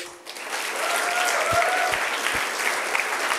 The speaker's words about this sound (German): geben wir doch dann auch nochmal einen herzlichen Applaus.